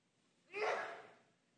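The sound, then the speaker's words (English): A single loud sneeze, a sharp breathy burst that swells quickly and trails off over about half a second, with no talking around it. “Bless you.”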